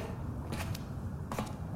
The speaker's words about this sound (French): Ouverture de porte.